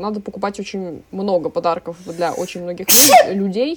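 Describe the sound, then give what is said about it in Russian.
A woman talks steadily, then one sharp, loud sneeze bursts out near the end before her speech resumes. “будь здорова точно”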